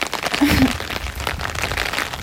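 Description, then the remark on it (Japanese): Steady outdoor rain hisses across the whole clip, a dense, even wash of noise, recorded while walking outside, with a brief low voiced murmur near the start and a faint rumble of wind underneath. “外で撮ったので環境音(雨音、風の音)があります”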